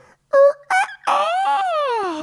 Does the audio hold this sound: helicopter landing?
no